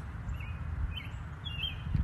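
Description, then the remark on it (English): Several faint bird chirps drift over a steady low outdoor rumble, with high, short calls recurring every half second or so and no talking. “Until next time, me and the birds will be right here.”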